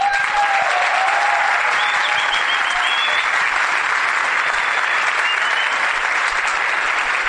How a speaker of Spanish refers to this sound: Así que yo los voy a dejar, creo que él tiene algo para explicar hoy, les pido que lo reciban con un aplauso y se los dejo.